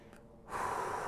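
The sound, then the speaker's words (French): A steady, airy, calm inhale through the nose, part of a guided relaxation breathing exercise, begins partway in and continues smoothly to the end, moderately loud, with no talking. “Donc, j'inspire tranquillement”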